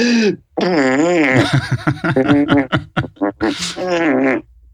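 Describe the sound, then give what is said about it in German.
A voice makes a long run of loud, buzzy fart imitations with the mouth, bursts of wobbling raspberry sounds broken by short pauses, clear. “Ich kann nämlich ganz toll diese Furze imitieren.”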